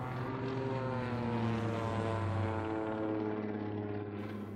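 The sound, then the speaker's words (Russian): A propeller airplane engine drones steadily, a low harmonic rumble holding at constant loudness for several seconds, strong, with no voices over it. “И вдруг я слышу, гудит, гудит мой самолет. Механики узнавали иногда свой самолет по рокоту двигателя.”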